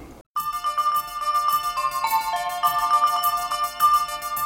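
After a short pause, a pop song's instrumental intro begins: a bright, full melody over a steady rhythmic pulse, loud, with no singing yet.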